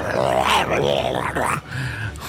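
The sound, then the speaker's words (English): A voice imitates the low, guttural growl of a creature struck in the eye by a firebolt, rough and rumbling with a couple of rising, strained swells, ending in a quieter, drawn-out snarl. “with a low guttural sound.”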